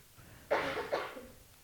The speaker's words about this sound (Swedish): Jag trodde du skulle nysa, jag bara prosit. host, host. Nej, jag hostade lite.